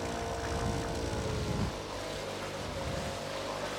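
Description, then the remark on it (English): A motorboat engine drones steadily on a side canal in freezing weather, its deep rumble strong at first and easing slightly midway as the boat, a fancy Ben and Jerry's boat, passes. No one speaks. “Oh, here comes somebody.”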